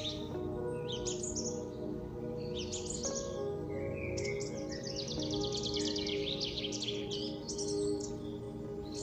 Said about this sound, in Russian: Вы вслушиваетесь в пение птиц.